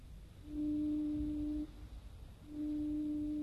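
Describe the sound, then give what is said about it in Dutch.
A deep lighthouse foghorn blares two long, steady blasts separated by a short gap, signalling SOS in Morse code in thick evening fog, loud, over a low rumbling background with no voices. “En wat spookt in godsnaam met die misthoorn uit? Wacht eens even. Dat is morsen. S. O. S.”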